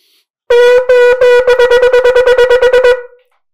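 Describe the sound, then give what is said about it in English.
A shofar sounds alone, loud and brassy: three short wavering blasts (shevarim) flow straight into a rapid run of about nine staccato bursts (teruah), all in one unbroken breath with no breath taken in between. “So, Neshima Achas is going to sound like this.”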